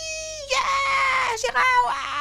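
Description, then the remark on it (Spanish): A voice imitates children's shrill, wailing screams in a few sustained, wavering bursts with brief breaks, loud, like school kids shrieking as they slide down rain-slicked stairs in a crowd. “Los gritos. O sea, bajan en, en, tropel, resbalando, haciendo una especie de, rafting por las escaleras hasta abajo.”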